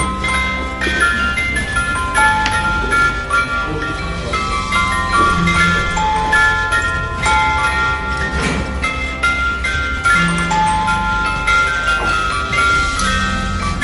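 A hand-cranked music box, its handle being turned with the lid closed, plays a tinkling, bell-like melody, bright high notes ringing over a steady mechanical hum, loud and continuous with no talking.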